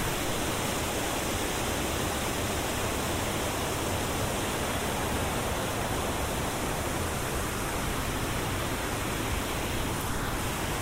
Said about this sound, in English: to whip around this island to the right, it whooshes over these stones and you can you can hear that lovely sound. It reminds me of the, the weir in Durham, that rushing sound. Just stand here and listen. I love it. I love the sound of water.